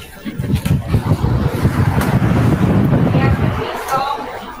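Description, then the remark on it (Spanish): Loud, rumbling wind from a fan buffets the microphone for several seconds, a steady low roar from air blown straight into it, easing off near the end as muffled voices murmur underneath. “Yo acabo de pasar delante de un, de un ventilador de 3A”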